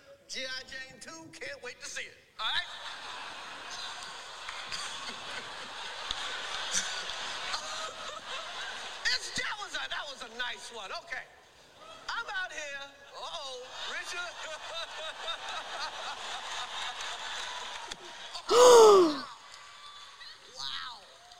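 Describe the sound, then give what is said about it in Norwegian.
People talk for most of the stretch, then a single sharp, loud open-hand slap of one man striking another on stage cracks out near the end, followed by a brief hush in the hall before voices resume. “Da skal vi få høre lyden av Will Smith som slår Chris Rock”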